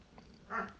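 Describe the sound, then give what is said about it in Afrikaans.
Two dogs, Soekie and Mika, playing quietly on their bed: a brief soft snuffling rustle followed by a low grunt or thump right at the end, with no voices present. “ons twee honde, Soekie en Mika is besig om bietjie te speel daar op hulle bed.”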